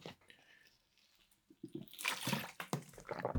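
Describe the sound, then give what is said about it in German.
Water is poured into a glass, a gurgling, splashing stream that grows louder toward the end, after a quiet start with a few faint liquid sounds that could be sips. “Ich nehme noch einen Schluck Wasser.”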